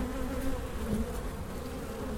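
A bee buzzes steadily for a couple of seconds, a low, continuous droning hum with a slight wavering in pitch and no voices.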